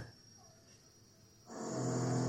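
After a quiet moment, a power drill nearby suddenly starts drilling again, running with a loud, steady whirring whine and a coarse grinding edge that continues to the end.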